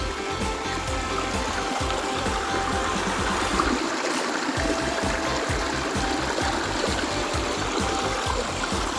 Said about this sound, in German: Und was rauscht hier so schön? Ein schöner kleiner Bach. Ja, ein Bach. Ein Bach. Ne? Na, hören wir mal, lassen wir mal rauschen den Bach. Ne?